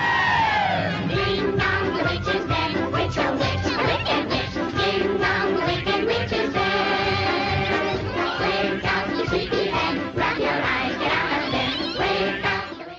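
A vintage song from the original soundtrack of the film The Wizard of Oz plays, with high, bright voices singing together over a full orchestra at a steady, loud level throughout.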